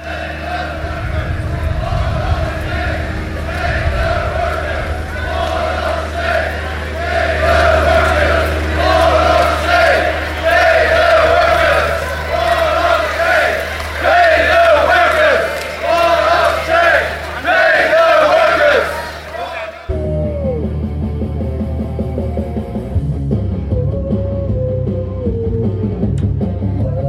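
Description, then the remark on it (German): A crowd in an anticapitalist bloc at the DGB May Day demonstration chants slogans, loud, dense and continuous for about twenty seconds, then cuts abruptly to a quieter, thinner passage of voices. “Ja, das gerade gehörte ist nicht eine versuchte Digitalisierung meiner uralten Kassettenbestände, sondern O-Töne vom vergangenen Sonntag.”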